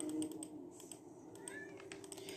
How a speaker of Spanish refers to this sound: ¿Qué pasa, gato? ¿Querés salir? Sí, que el gato quiere salir.